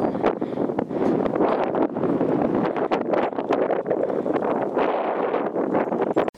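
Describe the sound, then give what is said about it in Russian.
Continuous rustling and swishing of synthetic fabric as a windproof jacket is pulled on as the third clothing layer for mountain hiking, with scattered brisk crinkles and rubs throughout, fairly loud and with no talking. “Сейчас я его надену.”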